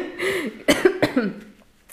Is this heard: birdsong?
no